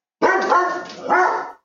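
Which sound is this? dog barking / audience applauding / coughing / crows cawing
dog barking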